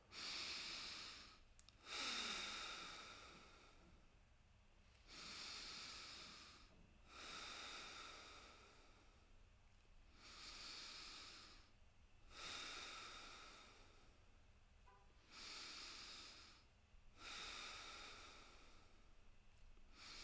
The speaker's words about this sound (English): So let's start. Let's start with the inhale in three two, one. Let's go.